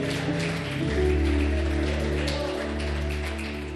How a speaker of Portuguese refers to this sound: Aplauda bem forte o nome do Senhor.